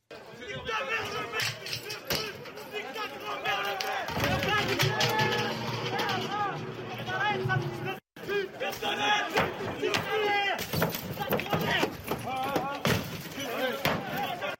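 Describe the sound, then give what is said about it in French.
A rowdy crowd of rioters shouts and jeers insults at a town's mayor as he approaches his burning car, many voices overlapping in loud, agitated yelling, with occasional bangs and thuds cutting through the continuous uproar. “Alors, sur une vidéo, on voit l'élu s'approcher de la voiture en feu euh, sous les insultes des émeutiers.”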